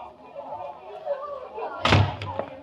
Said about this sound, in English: as Jim Anderson steps through the front door